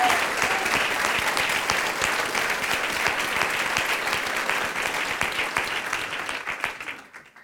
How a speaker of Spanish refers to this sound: Puedes darle un fuerte aplauso a Él. Puedes darle un fuerte aplauso a Él.